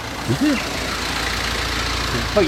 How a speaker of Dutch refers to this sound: een bus, een van de weinige auto's hier.